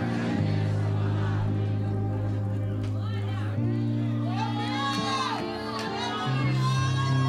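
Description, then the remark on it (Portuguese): A church audience shouting at one another, each believer shouting at the person beside them, many overlapping voices calling out loudly and continuously over a steady low instrumental drone, with several rising and falling cries standing out from the crowd. “Dá um grito nesse crente de novo. Dá um grito nele e fala assim: Ô Baruque!”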